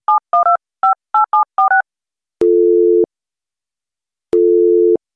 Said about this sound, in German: Anruf. Das ist schon mal gut.